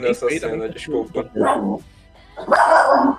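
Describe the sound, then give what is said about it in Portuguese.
A person's own dogs bark loudly, a short burst of barks near the end following a brief earlier yelp, while the person talks and laughs in the foreground. “É, se vocês ouvirem cachorros latindo, perdão, são os meus aqui, eles são meio malucos.”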